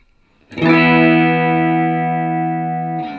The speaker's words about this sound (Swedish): Du hör att det ligger en high pitch-grejen bakom. Det låter som att det, eh. det, låter som det är väldigt kort delay-tid, så man ja. får nästan här lite eh, konfilter-liknande saken.